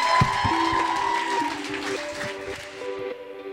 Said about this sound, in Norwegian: Tusen takk for i kveld, enda en gang. Eh, en applaus til for dere selv og alle som har vært her oppe i dag.